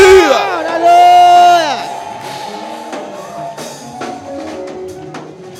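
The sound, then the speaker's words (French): A crowd erupts in loud, joyful shouting and whooping to Jesus, one strong sustained cry rising above the rest before the noise settles into a lingering murmur of voices and scattered exclamations. “Est-ce que cette quelqu'un peut pousser des cris de joie à Jésus?”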